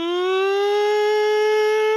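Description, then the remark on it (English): A tornado warning siren wails continuously outside, a loud sustained tone rising slowly in pitch and holding steady throughout, with no voices present. “The tornado sirens are scarier to me than gunshots or anything else in life.”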